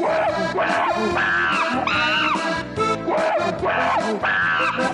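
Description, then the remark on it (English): A chimpanzee screams loudly, a series of harsh, high shrieks and hoots that rise and fall in quick bursts, filling the whole stretch without pause. “no, no, it's a real monkey. I swear to God. Listen, you can tell it's a real monkey. You can hear it”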